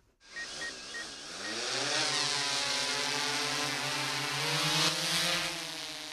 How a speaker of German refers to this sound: Eine Drohne mit vier Rotoren saust senkrecht in den Himmel. 100 Meter hoch steigt sie über dem Kranzberger Forst in der Nähe von Freising und beginnt dann hin und her zu fliegen.